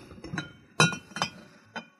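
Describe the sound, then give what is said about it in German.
A glass bottle of mild sherry vinegar clinks several times: a soft tap, then a sharp bright clink, followed by a couple of lighter glassy knocks, with no one talking. “Ich nehme mal hier einen Sherry-Essig.”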